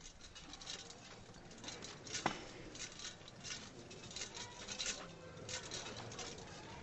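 Censers swinging in a street procession, preceding the Santísimo Cristo de la Redención, give off a steady patter of light metallic clinks and jingles with one sharper clink early on, over a low outdoor murmur and no clear voices.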